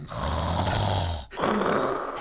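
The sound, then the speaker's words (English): A voice imitates snoring with two rough, rattling inhales, the first longer and the second after a brief pause, loud, with no words spoken. “Whoa, that's good snoring.”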